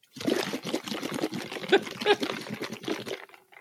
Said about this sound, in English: I have one more note, um, and I think it needs you to blow your bubbles. Blow them now.